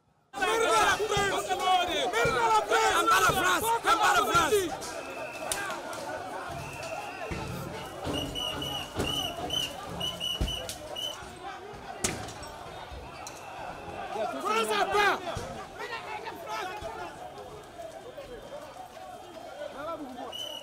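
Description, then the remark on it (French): A crowd of protesters targeting a French embassy in West Africa shouts and yells in a loud, chaotic din, with scattered sharp bangs and thuds; flames are visible on the compound and projectiles are thrown. The roar is strongest at first, eases slightly, then swells again. “Les coups d'État sont légion en, Afrique de l'Ouest, mais c'est rare de voir une ambassade française prise pour cible par les manifestants.”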